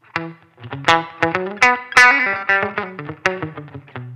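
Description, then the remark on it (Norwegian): A quick run of plucked, slightly gritty electric guitar notes, each ringing briefly with a short, tight small-room reverb tail; fairly loud, with no voices. “Eh, nå er vi bare room, så det er et room. lite rom.”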